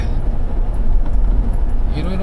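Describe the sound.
Steady low rumble of a car cabin while driving behind a slow car, a constant road and engine drone filling the space, with a faint voice speaking over it now and then.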